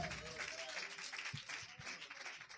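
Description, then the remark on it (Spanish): An audience applauds steadily in honour of the King of Kings, Lord of Lords, a dense wash of many hands clapping at once with no breaks, joined by faint cheering voices underneath. “Y denle un aplauso al Rey de Reyes Señor de Señores.”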